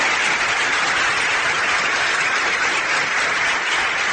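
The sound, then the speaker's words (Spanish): Steady audience applause for two people present in the room, many hands clapping in a dense, continuous wash at an even loudness for about four seconds, with no voices heard over it. “Denles un aplauso, ahí están los dos.”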